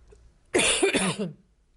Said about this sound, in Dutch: Ik hoest nog eventjes, sorry. Ja, voor de luisteraars. Ik wil het niet om mijn geweten hebben dat je last hebt van mijn gehoest.